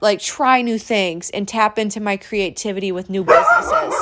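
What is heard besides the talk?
dog barking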